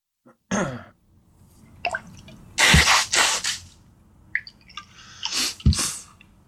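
A couple of sharp, explosive sneezes with a quick inhaled gasp before them and a final burst near the end, loud against a quiet background with no talking.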